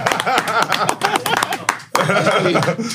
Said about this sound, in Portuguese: Valeu, galera! Palmas pra Zuca! Zuca!